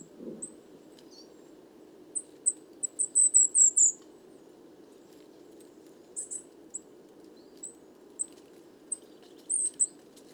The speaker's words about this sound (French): Donc les cris fins, c'est les l'épée et tous les autres cris différents, ce sont les mésanges noirs.